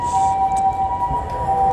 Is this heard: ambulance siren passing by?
yes